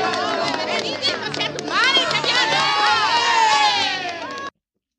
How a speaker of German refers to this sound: Ja, das habe ich doch gesagt. Das ist ein Stierkampf mit Musik.